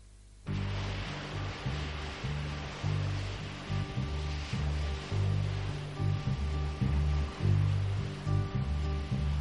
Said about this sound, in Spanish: Sea como fuere, una de las grandes canciones de la historia del soul con sus sonidos de las olas golpeando en el muelle de la bahía